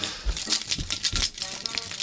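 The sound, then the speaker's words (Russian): A small bunch of keys jingles in a few quick shakes, bright metallic clinks rattling together for about two seconds with no one talking. “ключик. где? Ну-ка, позвони-ка.”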